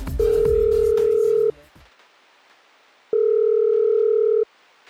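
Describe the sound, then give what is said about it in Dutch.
A telephone ringback tone sounds twice, each a steady, loud electronic beep of over a second with a long silent gap between, as an outgoing call to Lange Frans rings unanswered. Faint background noise accompanies the first tone. “Lange Frans neemt niet op.”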